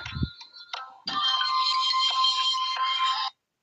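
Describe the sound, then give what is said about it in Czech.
A woman's mobile phone ringtone plays loudly, a bright electronic melody with a few short opening notes followed by a sustained, steady ringing phrase that cuts off abruptly. “Manželka tady má mobil.”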